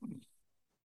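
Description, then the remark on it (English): A single short sneeze bursts out at the start, a quick breathy blast with a hissy edge that fades within half a second, leaving near silence. “Bless you. Bless you.”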